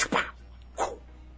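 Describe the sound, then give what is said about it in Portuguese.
A voice mimics a whip crack with two sharp, breathy bursts, the first louder and longer, the second about half a second later, fairly quiet, with no talking. “Quando tu estourar o chicote no ar, o leão vai parar.”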